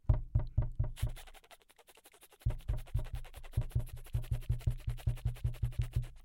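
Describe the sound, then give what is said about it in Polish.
A voice imitates a small dog's quick panting: rapid, breathy huffs about five per second, briefly thinning into quieter breaths before the steady, even rhythm picks back up. No words are spoken. “Tu jest oddychanie szybkie, a tu jest ogonek. Mały pies, w, y, większy, wolniej. Dycha wolniej.”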